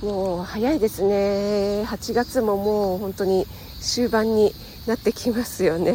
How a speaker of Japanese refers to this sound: あと結構セミが鳴いています